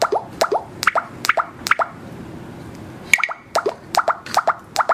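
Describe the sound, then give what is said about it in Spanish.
A series of short, bright electronic blips, a high-pitched app cue signaling that a label is positioned below, sounding in quick repeated pairs, with a brief pause midway before the pattern resumes; no one is talking. “Sonido abajo.”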